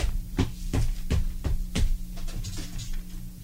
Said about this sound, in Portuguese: Ascolta. Parece che stanno battendo una porta. Ma, ma, ma è mezzanotte. Eh. E chi va a battere una porta da a questa ora?